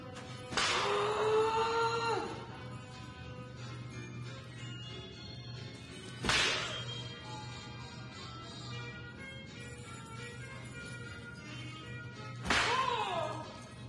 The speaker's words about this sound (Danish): Socialdemokratiets fredagsbar her under valgkampen, det må jeg indrømme. Øh, der er nogen, der har, jeg ved ikke hvad. Det, det, øh, de slår søm, lød det som om, ikke? Jo. Er det ikke det, de gør?